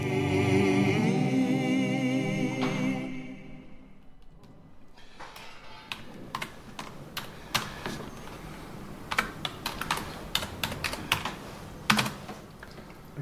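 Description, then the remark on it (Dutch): Irregular bursts of clicky keystrokes on a computer keyboard, fairly crisp, following a fading tonal musical passage in the first few seconds; no one speaks. “computer doet het weer.”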